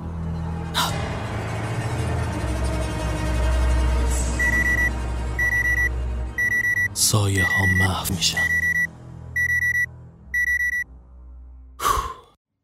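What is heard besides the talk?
alarm clock beeping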